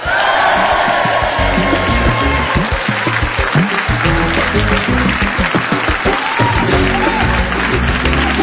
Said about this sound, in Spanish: Sabía que les iba a gustar. Siempre aplauden cuando yo lo digo.